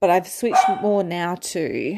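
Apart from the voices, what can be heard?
dog barking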